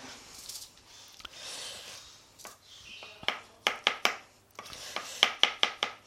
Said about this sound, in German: So. Ja, der hat die Champignons schön in Scheiben geschnitten. Ihr hört das, was so klackert, ist das Messer, was durch die Champignon gleitet.